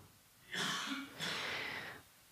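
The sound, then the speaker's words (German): Two rough, breathy coughs in quick succession from a man who has a slight cough, each a short burst with a slight pause between them, fairly loud, with no talking. “hat ein bisschen Husten, deswegen hustet er hier so ein bisschen rum, aber ich lasse mich davon überhaupt nicht stören.”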